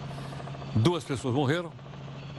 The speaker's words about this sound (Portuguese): Esse é o helicóptero da Record lá no Rio de Janeiro.